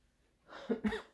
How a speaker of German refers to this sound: Ich nehme einen Schluck Tee.